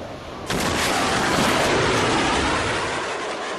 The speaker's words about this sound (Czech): Tak tenhle zvuk uslyšíte, když vám nad hlavou přeletí gripen, tedy nadzvuková stíhačka. Může se vám zdát, že někde něco bouchlo, ale klid, to jen supersonik překonal rychlost zvuku. Říká se tomu sonický třesk a může být slyšet až desítky kilometrů